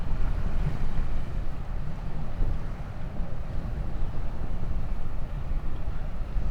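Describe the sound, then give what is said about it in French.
Ocean waves wash steadily onto a deserted, palm-lined beach, a continuous low rushing roar of surf mixed with wind, fairly loud, with no voices. “de la plage, baignée par le mouvement des vagues.”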